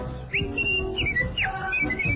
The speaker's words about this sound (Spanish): Hacía esta melodía, este juego de palabras. Era un virtuoso de la, del silbido, hacía melodías imposibles.